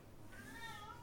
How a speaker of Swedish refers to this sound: Alltså ni får ursäkta katten, vi eh, har faktiskt eh, planerat att kastrera henne nu, äntligen.